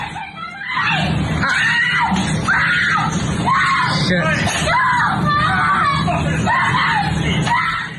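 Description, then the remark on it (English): A woman screams and roars in loud, repeated bursts, roughly one per second, keeping up an anguished, continuous wailing for several seconds with no clear speech. “And you'd swear that he, he shot one of them as she screamed and roared.”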